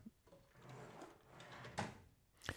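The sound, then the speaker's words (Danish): A drawer is opened for comic effect, sliding with a rumbling wooden scrape, followed by a couple of sharper knocks as it stops, fairly quiet, with no voices. “Der åbnede lige en skuffen. Det var øh, for komisk effekt, men jeg tror faktisk, at den forsvinder lidt i det, at øh, du ikke kan se, at jeg åbner en skuffe.”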